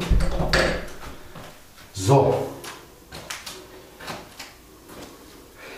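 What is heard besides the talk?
door being closed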